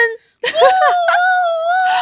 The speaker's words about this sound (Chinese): 我们 Money DJ 今年最好的圣诞礼物就是重返苹果商业类排行榜一字头，快点欢呼声！